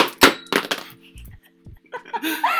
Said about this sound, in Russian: Я уронил стакан.